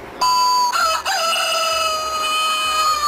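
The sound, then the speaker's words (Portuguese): A rooster lets out one long, shrill crow in a classic Silvio Santos item. The crow is loud, its strained pitch wavering and stretching out for about three seconds with no voices around it. “E tinha aquele clássico do Silvio Santos que tinha um paraguaio falando a hora em espanhol e um galo esgarniçado.”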